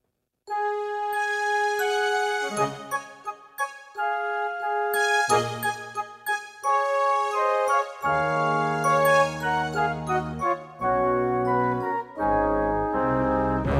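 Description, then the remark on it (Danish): A short instrumental overture for Gift ved første blik, The Musical, opens with bright, chiming sustained notes shifting in a slow melody, then fuller low bass tones join and the music swells louder toward the end. No one speaks. “Bjarne laver sådan en overture, som sætter stemningen.”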